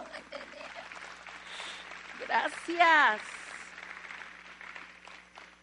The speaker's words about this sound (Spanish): Denle un aplauso.